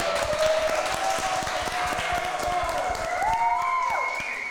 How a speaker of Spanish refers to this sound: Un aplauso para Guayabo Monterrey, por favor.